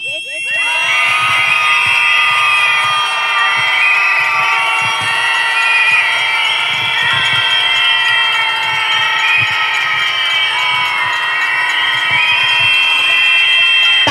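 A large crowd at a protest in Austria against violence against women and femicides screams together in one long, loud, sustained outcry, many high-pitched voices overlapping into a dense, wavering wall of sound that holds steady for about fourteen seconds.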